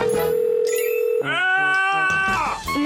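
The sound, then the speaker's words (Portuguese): A mobile phone rings with a loud electronic ringtone: sustained, steady tones that shift pitch in a short melodic pattern, with no talking. “Uma vez o meu pai foi para o trabalho e esqueceu-se do telemóvel.”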